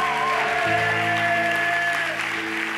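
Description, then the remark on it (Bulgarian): An audience claps steadily during a sermon in a dense, continuous wash of applause, while sustained keyboard chords hold underneath and shift pitch once early on. “Ръкопляскай малко, ако ти си човек, който усеща това, което комуникирам днес.”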